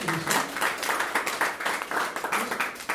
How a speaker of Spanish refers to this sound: Un fuerte aplauso para nuestros Señor